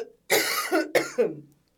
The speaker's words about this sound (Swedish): Nu får du en hostattack.